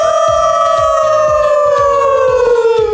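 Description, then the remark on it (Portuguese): Several members of the Alcateia Empreendedora group from Caçador join in a long, sustained imitation of a wolf howl, a loud drawn-out tone that slowly falls in pitch over a steady, rhythmic musical beat. “já tá ligado que nosso uivo tá cada vez mais afinado,”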